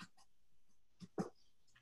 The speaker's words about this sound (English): Sorry about the noise of the dog in the background.